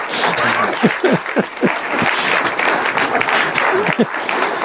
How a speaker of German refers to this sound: Deswegen jetzt also wirklich einen großen brandenden Applaus